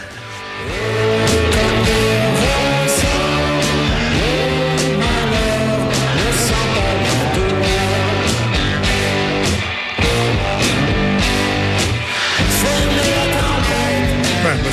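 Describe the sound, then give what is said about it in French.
Loud, heavily distorted rock guitar chords ring with thick amp reverb over steady pounding drums, playing continuously with no voices, with only a brief dip partway through. “la distorsion, la, grosse guitare est, est, pas loin. Oh, il y a le gros reverb aussi dans l'ampli, avec une exécution assez minimaliste, mais c'est, voulu.”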